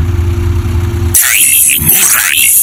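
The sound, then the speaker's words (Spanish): A Datsun 89 car's engine hums low and steady at a slow idle as it moves slowly through a misty alley, then the sound cuts abruptly to a brighter, noisier wash with warbling, sliding tones. No one speaks. “Entre la bruma del callejón B transita sigiloso un Datsun 89”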